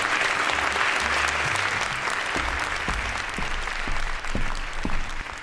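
Sustained audience applause in a theater, welcoming a storyteller performing the Palabrero, a dense wash of many hands clapping at a steady, fairly loud level for several seconds, with a few sharper individual claps standing out.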